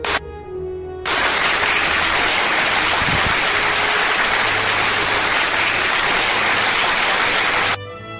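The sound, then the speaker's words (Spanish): Applause from a crowd swells in suddenly and holds as a dense, steady wash of clapping for about seven seconds, then cuts off abruptly. A low musical tone hums briefly before and after. “Muy bien, Pinky Lidia, aplausos.”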